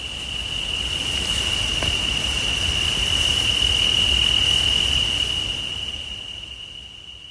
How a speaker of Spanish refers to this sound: por esos sonidos de grillos pues que tanto alegran nuestras noches de verano.